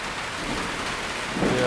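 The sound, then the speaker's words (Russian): Steady, dense rain hisses with a low rumbling undertone, growing a little louder toward the end; no one speaks. “Я чуть-чуть снял момент, заснял там видео с дождем”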